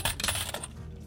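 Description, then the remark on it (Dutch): A rapid clatter of many coins, including one very large coin, spilling and bouncing onto a hard surface, dense metallic jingling for about half a second before settling into a quiet rattle. “ja, ik, je hoorde heel veel muntjes vallen, maar er was één hele grote munt.”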